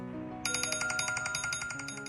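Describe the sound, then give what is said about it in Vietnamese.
A mobile phone ringtone for an incoming call in Hanoi, Vietnam, about ethnic minority patients coming to Hanoi for medical treatment, chimes in a quick, repeating melodic pattern of bright electronic tones, steady, over a soft low musical background with no one speaking. “Mỗi khi có điện thoại thông báo có người đồng bào dân tộc thiểu số xuống Hà Nội chữa bệnh”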